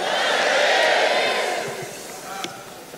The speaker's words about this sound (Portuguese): Posso podem dar um glória a Deus bem alto aí, irmão?